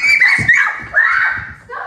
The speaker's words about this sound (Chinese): 夫妻俩第一次的你追我跑龙虾大战是在二零一四年，此后年年龙虾季都可以听到老婆的惊声尖叫。